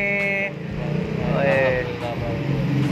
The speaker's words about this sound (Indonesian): kita coba tes untuk suara yang di pinggir jalan kalau bisa misalnya bisa masuk di HP ini